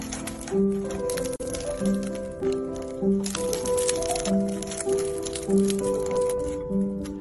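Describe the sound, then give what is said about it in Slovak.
Crisp, flaky crunching and crackling as a knife cuts open a croissant, a steady string of fairly loud crackles with a repeating tonal squeak underneath. “Takže by to bolo prekrojené kroasantíka? Áno!”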